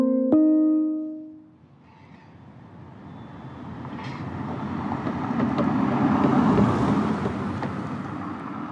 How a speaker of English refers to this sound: So, my apartment building is on 12th and Vine and I definitely know what it's like to hear traffic. I hear enough of it all the time. I hear cars running up and down the street.